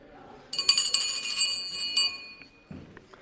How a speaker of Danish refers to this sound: Så ja, jeg tror, vi, vi, nu er klokken i hvert fald 8, og så ringer jeg med klokken og spørger, om der er flere, der ønsker at afgive stemme.